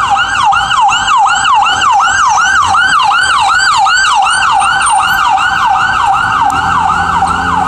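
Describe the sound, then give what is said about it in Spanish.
A loud ambulance siren passing on the street in a rapid yelping pattern, its pitch sweeping up and down about three times a second, sustained, with faint street rumble beneath. “Va a pasar una ambulancia, un segundo.”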